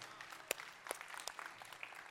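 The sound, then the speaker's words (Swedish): Warm applause from a group for a worship team, a steady patter of many overlapping hand claps with a few sharper claps standing out, fairly soft and without any voices on top. “Ska vi ge det här underbara lovsångsteamet en varm applåd?”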